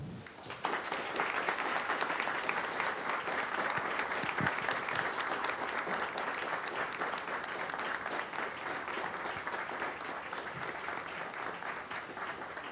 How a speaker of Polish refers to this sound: Dziękuję e, bardzo i teraz o, oklaski już nie pojedyncze.